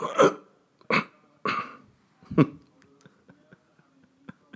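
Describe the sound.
A voice makes four short, forceful throaty grunts in an irregular rhythm, imitating someone straining while trying to stretch a little bit more, followed by near-silence with a few faint clicks.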